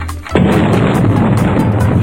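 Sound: ramadan iftar cannon firing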